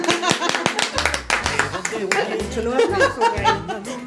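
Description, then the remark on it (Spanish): Applause and cheering with a crowd of hands clapping in a steady rush, mixed with laughter and excited voices calling out, loud and continuous throughout. “A mí me encantan los aplausos.”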